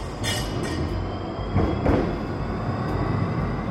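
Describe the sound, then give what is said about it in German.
A passing electric tram rumbles steadily, a thin high-pitched motor whine running over the rolling noise, with a couple of brief louder swells midway. “man kennt das vielleicht von Straßenbahnen wenn man am Bahnhof oder in der Stadt an einer Straßenbahn vorbeiläuft, dann hört man immer so ein, so ein hochfrequentes Heulen oder Sirren.”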